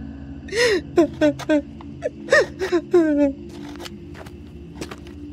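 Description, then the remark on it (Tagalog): A woman, a nanny, cries in a run of short, wavering whimpers and catching sobs, several bursts in quick succession before trailing off into quieter, faint sniffles. “Bakit ka umiiyak?”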